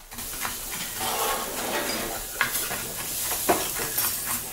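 Steady sizzling and hissing of food cooking in a pan in the open kitchen of the restaurant Contraste, with occasional scraping stirs and light clanks of utensils, continuous with no one speaking.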